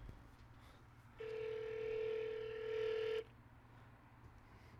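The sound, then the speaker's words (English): A phone call to a Hollister store rings out once, a steady buzzing ringback tone lasting about two seconds over a quiet low hum, with no one talking. “So, so let's uh let's uh call uh Hollister. Is Hollister open right now? Probably. Let's see. We're gonna call him.”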